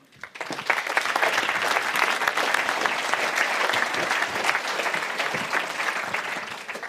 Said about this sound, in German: Begrüßen Sie bitte mit einem herzlichen Applaus